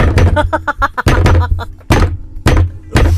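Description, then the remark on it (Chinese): A locked kitchen door of a rural house is rattled and pushed against its frame rather than knocked, in several loud, irregular bursts, with a voice making rattling, clattering sounds between the knocks. “就是不是敲门，是因为他们乡下的那个门是，你知道门串还是什么的，就是你溜，你知道？”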